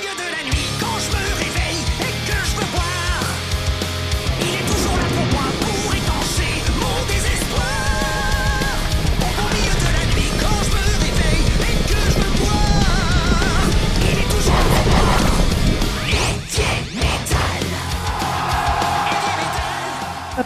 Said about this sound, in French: Écoutons maintenant un extrait métallique d'une chanson qui parle justement d'évier.